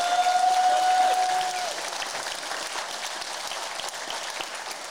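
Sustained applause from a crowd giving a hand to the administrators of a fan group, a dense steady patter of many hands clapping that starts loud and settles slightly softer, with a brief whistle-like tone early on.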